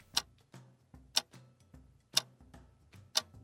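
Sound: wristwatch ticking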